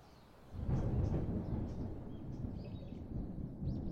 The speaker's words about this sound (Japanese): わあ雷だ